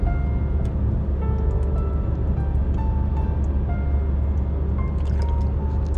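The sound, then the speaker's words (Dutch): Someone drinks water: a few quiet sips and swallows with small wet clicks, set against a steady low background hum. No one speaks. “Even wat water hoor.”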